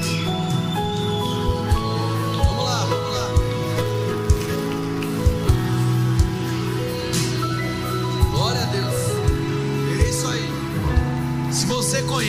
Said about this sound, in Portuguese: Igreja, vamos aplaudir essas pessoas que já estão se movimentando. Pode vir aqui. Fica de frente para mim aqui, ó. Vem cá. Vai aplaudindo aí que tem gente vindo.